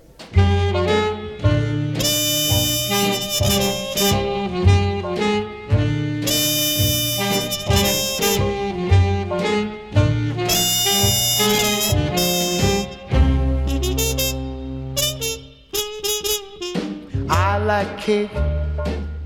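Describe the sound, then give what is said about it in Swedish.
A 1940s swing-era song recording by an American saxophonist, bandleader and songwriter plays loudly, with punchy brass and saxophone riffs over a steady bouncing bass and drums, no singing yet in this stretch. “Den här killen han blev också känd som The King of the Jukebox.”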